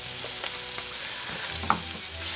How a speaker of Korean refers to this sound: 자 여러분 삼겹살 삼겹살 타지 않게 구워요.